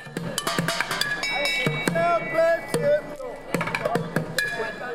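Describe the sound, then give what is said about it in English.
Rapid, busy street drumming in downtown San Francisco on five-gallon buckets, pots and pans and a cowbell, with sharp hollow thumps mixed with clanging metallic hits that ring briefly, played loud in a steady, driving rhythm. “performed downtown for decades, drumming on five gallon buckets, pots and pans, and a cowbell, all the while flashing big smiles at passersby.”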